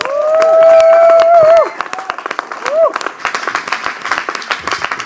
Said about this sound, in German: geben wir ihnen einen riesen Applaus.